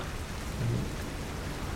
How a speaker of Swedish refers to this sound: Sätter mig utanför och tittar ner mot havet. Det stormar.